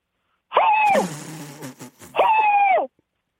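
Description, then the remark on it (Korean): In a sound imitation contest, a person's voice imitates the morning call of a water deer from Gangneung: two loud, strained screams with a falling pitch at the ends, separated by a harsh, raspy burst of breathy noise. “또 원래 강릉 고라니가 똑같은데.”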